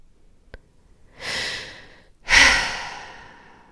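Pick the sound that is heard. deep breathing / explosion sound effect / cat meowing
deep breathing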